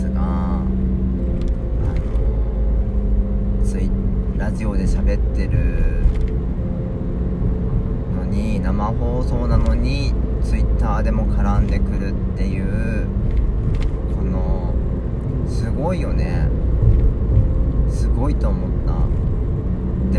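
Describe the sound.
A loud car engine, from one of five cars present, rumbles steadily throughout, its deep low roar filling the scene, with indistinct voices mixed faintly into the noise.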